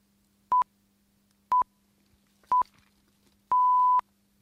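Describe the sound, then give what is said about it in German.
A radio time signal marking the start of summer time in 1980: three short, evenly spaced high beeps at one-second intervals, then a longer final tone, clear and steady over a faint low hum. “Beim letzten Ton des Zeitzeichens beginnt die Sommerzeit 1980.”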